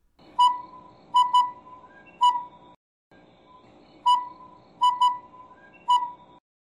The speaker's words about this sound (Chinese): 接下来要带给大家台湾最小只的猫头鹰——修流。